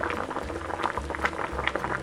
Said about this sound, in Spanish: En una olla metemos el pollo, las cebollas, las especias, el cardamomo, los clavos y el laurel, junto con los seis vasos de agua y lo dejamos hirviendo.